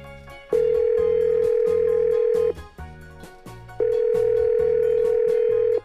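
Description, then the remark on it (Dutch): An outgoing call's ringback tone, on a call to someone working remotely abroad, sounds twice, each a long steady electronic buzz of about two seconds separated by a short pause, loud and clear over soft background music. “Dus ik ga haar bellen.”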